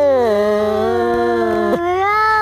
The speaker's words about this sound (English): You know when cats square up with each other and they just go wow wow wow wow. I found this video of these two cats, and you've got to listen pretty carefully.